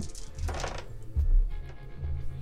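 Dice rolled for initiative in a tabletop game clatter across a tabletop in a quick burst of small rattling clicks, fairly soft, followed by a low background rumble and a few faint taps.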